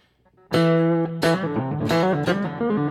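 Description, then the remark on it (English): A loud, overdriven electric guitar plays a twangy, bluegrass-style chicken-picking lick in a metal context: a held opening note, then quick snapped notes shifting up and down in pitch, with no voices. “Something like that, you know, like a lot of chicken picking or.”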